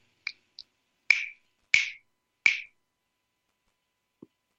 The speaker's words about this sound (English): Okay, I'm going to snap my fingers again and I'm going to be an animal.